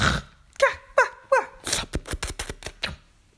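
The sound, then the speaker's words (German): Someone imitates a dachshund's bark with three short, high yaps in quick succession, followed by a rapid run of breathy, huffing bursts, fairly loud. “Der, der bellt ja auch, ne? So.”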